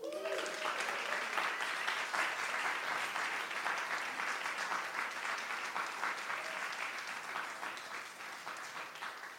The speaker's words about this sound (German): einen ganz großen Applaus.